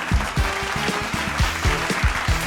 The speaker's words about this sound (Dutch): Een applaus voor